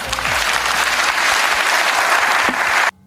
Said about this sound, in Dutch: Dus ik wil heel graag een warm applaus voor de broeder van een andere moeder, Henry Bontebal.